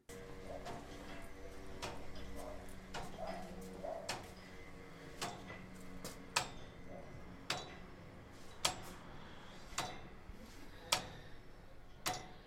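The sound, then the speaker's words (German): Steady mechanical ticking, knocking and striking from several clocks whose clockworks sit in heavy metal frame cases, with sharp, evenly spaced clicks standing out over a soft background hum. “Wenn Georg Ramensee eine von ihnen in Gang setzt, taktet und rhythmisiert das gleichmäßige Schlagen, Klopfen und Ticken behutsam die meditative Stille.”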